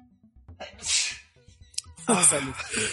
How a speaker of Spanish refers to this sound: Hoy ando bien estornudado.